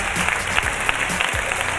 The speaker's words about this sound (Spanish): Así que os quiero pedir un aplauso